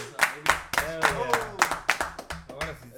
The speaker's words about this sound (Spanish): escucharon los pinches aplausos, chingada madre. Porque a veces ni aplaudimos, güey. Ah, Dependiendo de quién viene, no hay aplausos.